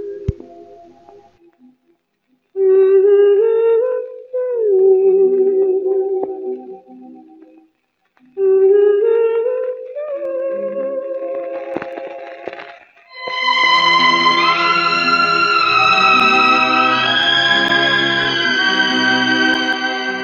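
A Hindi song with a female singer: gliding, wavering melodic phrases in two bursts separated by a short pause, then a fuller, sustained orchestral passage swells in and plays on without any talking.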